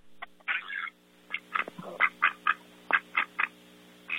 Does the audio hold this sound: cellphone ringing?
no